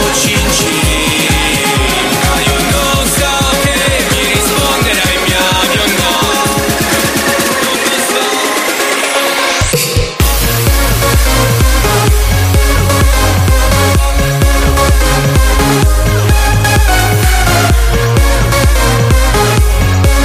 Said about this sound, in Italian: mashup, quelli belli. Qui abbiamo sentito … …